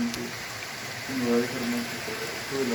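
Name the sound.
flowing water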